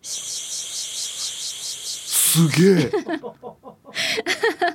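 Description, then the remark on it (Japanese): A voice imitates a cicada's call by mouth, a shrill, steady buzzing drone with a fast pulsing rhythm that lasts about two seconds. An impressed exclamation and laughter follow. “やってるっていうかセミの鳴き声はああセミの鳴き声は、はい、得意です、はい、夏限定ですねこれははいはい”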